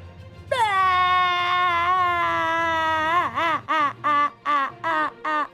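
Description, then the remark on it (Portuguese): A voice imitates human crying: one long, steady wailing tone held for about three seconds, then a rapid series of short, sobbing bursts, loud, with no other sound around it. “Bem, eu não consigo sentir tristeza, mas essa é minha melhor interpretação do choro humano.”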